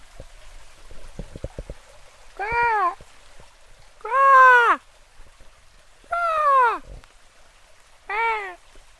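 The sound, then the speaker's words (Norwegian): A person imitates an otter with four high, whiny, meow-like calls, each about half a second long and evenly spaced, fairly loud, with faint patter and ticks in between, trying to call an otter out while waiting outdoors in the countryside. “Jeg skal prøve å kalle på oteren.”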